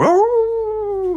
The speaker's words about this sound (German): Na gut, das ist ein Hund, keine Katze.